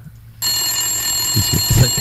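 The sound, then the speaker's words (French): A telephone starts ringing abruptly after a brief quiet moment, a bright, sustained metallic ring that stays loud and steady, with some low thumping noises beneath it toward the end. “Non, mais tas le téléphone sonne de pas oh.”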